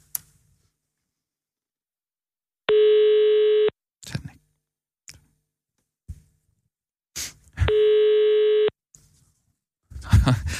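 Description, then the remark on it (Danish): A phone ringback tone sounds twice, each steady electronic ring lasting about a second with a pause between, as a call to a Social Democrat politician goes unanswered. Brief clicks and faint rustles fill the gaps. “Du kan jo håbe, hun, hun ikke tager den. ikke. Hun tager den ikke.”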